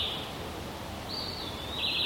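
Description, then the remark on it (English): A small bird up in the tall trees of a forest valley gives thin, high whistled 'wee wee' calls, a brief note then a longer drawn-out one, over a steady soft outdoor hiss with no talking. “And there's a funny little bird up there going wee wee.”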